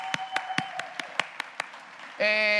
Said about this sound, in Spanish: Pero aplaudan bien, aunque no la conozcan.